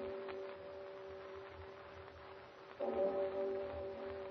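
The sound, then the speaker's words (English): A deep bell in a deserted mansion tolls the hour of eight, struck once over a low, lingering hum, its note swelling loudly and then ringing on in steady, sustained tones with no voices present. “What's that? A bell. Tolling the hour.”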